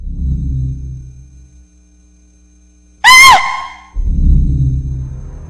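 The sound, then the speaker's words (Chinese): A woman's single sharp, high-pitched scream bursts out loudly from the darkness at the end of a tomb passage and wavers for under half a second, set between stretches of low, rumbling drone with no talking. “墓道的尽头，黑暗当中忽然传来一声尖叫”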